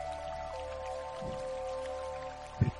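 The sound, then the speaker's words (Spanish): A very small waterfall in a stream with stones splashes in a steady wash of falling water, foaming at its base, with a couple of louder drips and plops breaking through, the last near the end. “Así que caminando dentro del agua, sobre las piedras del fondo, te vas acercando hacia donde escuchas esa caída de agua.”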